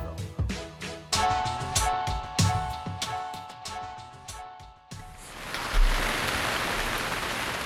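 A short musical passage with plucked, percussive notes stops abruptly and gives way to a steady, hissing wash of falling rain that continues evenly to the end.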